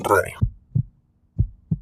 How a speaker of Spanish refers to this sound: Tu latido.